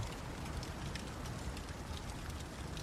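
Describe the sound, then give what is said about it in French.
Steady rain mixed with wet snow patters continuously on a surface, a dense hiss of tiny drops with occasional sharper ticks, even and unbroken, with no voices. “Il neige, il pleut en même temps.”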